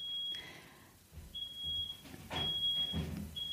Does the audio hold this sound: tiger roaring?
no